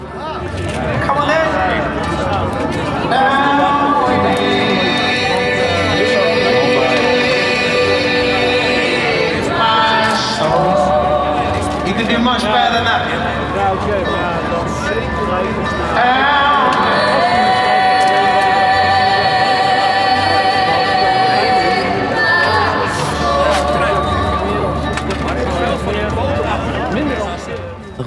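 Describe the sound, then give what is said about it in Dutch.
Loud, muffled live music from a festival tent at Lowlands drifts from a distance, recorded from a busy street, its sustained tones smeared by a dense wash of crowd chatter and street noise that never lets up for the whole stretch. “Alleen ik stond aan een drukke straat, best wel ver van de tent af.”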